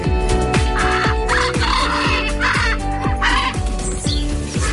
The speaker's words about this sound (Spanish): Así gritan los guacamayos. Los guacamayos son unos loros muy grandes y en la casa de Colón, aquí en Gran Canaria, hay dos guacamayos, uno azul y otro rojo.